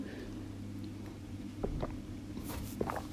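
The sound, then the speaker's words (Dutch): Someone takes a quick sip of water, a few soft, wet mouth and swallowing sounds over a low steady background hum, with no talking. “Ik pak trouwens even een slokje water.”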